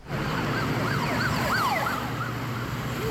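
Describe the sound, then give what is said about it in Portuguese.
Several police sirens wail at once, overlapping rising and falling tones over a steady rumble of traffic, loud, as three police cars chase a stolen bus along a major avenue in the west zone of Rio de Janeiro, Brazil. “Ah, três viaturas atrás do ônibus, ele não para não.”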